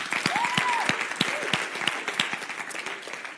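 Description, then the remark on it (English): A church audience applauds a member on her last Sunday with them, many hands clapping in a dense, continuous patter with a few sharper claps standing out, plus a faint whistle or cheer near the start. “let's give her a round of applause to tell her how much we love love her.”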